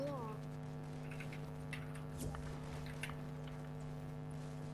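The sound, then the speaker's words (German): Scattered, irregular PC keyboard key clicks as someone plays a computer game, tapping away over a steady electrical hum, with several quick presses clustered together and no voices. “Du spielst auf PC. Ja. Habe ich an deinen Tasten gehört.”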